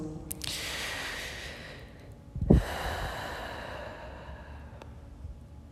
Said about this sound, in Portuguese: que a gente possa respirar bem fundo nesses momentos, quando nós tivermos essa percepção.